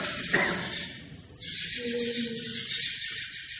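Birds chirping in a dense, steady outdoor chorus, with one brief sharper call near the start and some lower, cooing-like tones underneath, moderately loud and continuous.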